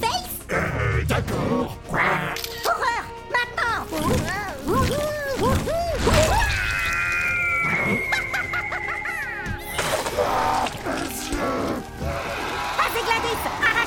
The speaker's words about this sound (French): Hé, eh, monsieur le coin-coin mutant